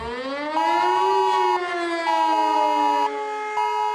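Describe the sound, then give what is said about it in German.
A loud civil defense warning siren wails steadily during a nationwide test of disaster warning systems, its pitch rising and holding with a second tone cutting in and out at regular intervals, heard alone without any voices. “Zum Test der Systeme zur Warnung in Katastrophenfällen?”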